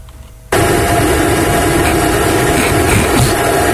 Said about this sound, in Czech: A rozjede se tam ten vysavač, jako co?